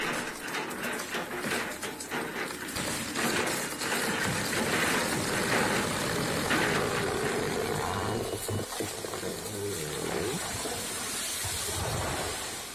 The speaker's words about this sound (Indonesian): Aku juga melihat ada manusia sedang menggendong gergaji. Mesin yang sangat besar. Mata pisaunya banyak dan tajam dan mereka mulai beraksi.